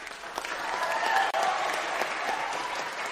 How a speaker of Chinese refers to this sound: 今天的斗琴大赛实在是太精彩，让我们再给两位一次热烈的掌声。